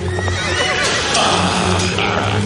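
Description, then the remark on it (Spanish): A horse neighs loudly while hooves pound in a steady gallop as a rider comes out of a tower on horseback, the whinny rising over a dense, continuous rumble of movement for a couple of seconds. “Kay sale a caballo de la torre.”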